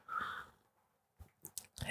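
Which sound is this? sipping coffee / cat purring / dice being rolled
sipping coffee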